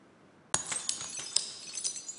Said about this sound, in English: And breaking of glass can indicate the end of a relationship or a friendship.